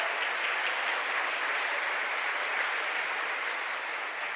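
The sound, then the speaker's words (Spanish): A church audience applauds loudly for the Lord, a dense, steady wash of many hands clapping that holds at a constant level for several seconds with no voices rising above it. “¿Cuánto le da un aplauso fuerte a ese Señor?”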